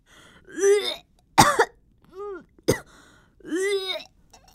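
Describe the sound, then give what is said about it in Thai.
A young woman vomits, retching and gagging in several strained, groaning heaves broken by two sharp, harsh bursts, with brief pauses between them and no speech. “เฮ้ยเฮ้ยนั่นมันเสียงอวกนี่ทำไมอวกขนาดนั้นล่ะ ตา ตาแกลุกไปดูมันสิมันเป็นอะไรของมันน่ะ”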